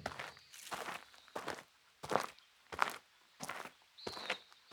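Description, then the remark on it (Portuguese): Uneven, staggering footsteps of someone carrying a pile of firewood in their arms crunch and thud at irregular intervals, about seven heavy steps, with a brief high scrape or rustle as if the load shifts. No talking. “Está tentando equilibrar uma pilha de lenha nos braços? Mas por que cambalear tanto?”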